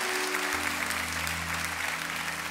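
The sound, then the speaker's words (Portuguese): An audience claps together in praise of the Lord in a dense, steady burst of applause that holds level throughout, with a low sustained keyboard chord droning underneath and no one speaking. “Aplaudo o Senhor.”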